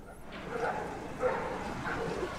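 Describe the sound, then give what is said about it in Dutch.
A pack of wild dogs attacks a police dog, barking and yelping in a scuffle, with three quick bursts of snarling, yipping noise over a steady rough background. “Je hebt hier eh, eh, een, een, roedel met, ik heb hem ook hier staan, een roedel met, met wilde honden. En die vallen een politiehond aan.”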